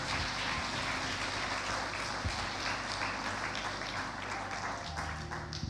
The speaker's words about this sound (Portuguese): Vamos fazer isso, vamos chegar de pé, vamos dar uma salva de palmas a Deus também. Obrigado.